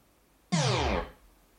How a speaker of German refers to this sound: Das ist der Sound, den ihr hört, wenn ähm, der Screen wieder sich ausschaltet.